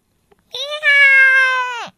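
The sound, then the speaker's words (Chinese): A single long, drawn-out meow, most likely a human voice imitating Raz the cat in a children's story, holding a steady pitch for over a second before dropping off, loud and on its own. “拉兹喵，用他的嘴巴咬住了小老鼠国王。”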